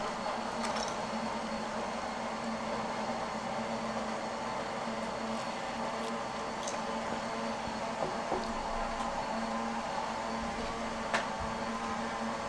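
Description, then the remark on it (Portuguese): A blender runs continuously, a steady whirring motor drone with a low hum, holding at an even level throughout with a few faint clicks and no talking. “Olha o barulho do liquidificador aí, ó.”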